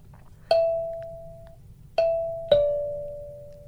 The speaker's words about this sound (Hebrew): אוקיי, אז אני לוקח את צד שמאל של הקלימבה.